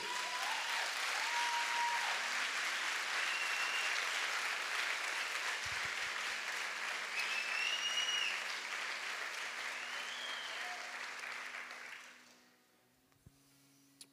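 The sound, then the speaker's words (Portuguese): An audience claps together for Jesus in a dense, steady wave of applause lasting about twelve seconds, with a few high shouts rising above it, before the clapping quickly dies away. “Pode dar salve de palmas para Jesus por isso.”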